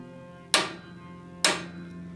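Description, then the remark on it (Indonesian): Two sharp metallic knocks about a second apart on iron window bars, each a bright clanging strike with a short ringing decay, heard alone against a quiet background hum. “pada saat gue lagi main tiba-tiba ada yang ngetokin jendela gua tapi bukan ketok jendela ketoknya teralis besinya gitu kan ini nih suara kayak gini nih dia ketoknya dua kali”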